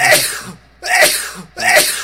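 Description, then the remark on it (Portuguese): Three loud sneezes in rapid succession, each a sharp explosive burst with short pauses between them and no talking. “Saúde, saúde!”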